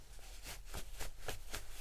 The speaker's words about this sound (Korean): 오늘 입은 옷은 바스락거리는 트레이닝복입니다 소리 들려드릴게요